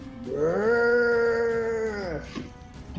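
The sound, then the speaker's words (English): A man's voice lets out one loud, drawn-out moo-like groan, imitating a cow. It holds a steady, strained pitch for about two seconds before dropping off abruptly, harsh. “he lets out like a bloody, horrid moo, I guess, kind of maybe.”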